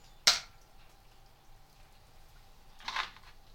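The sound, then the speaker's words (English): A small almond drops onto a wooden chopping board with a sharp click, followed almost three seconds later by a second, softer knock against the wood. “Almond wooden chopping board.”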